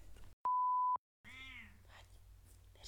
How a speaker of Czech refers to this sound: nám bude mňoukat v pozadí.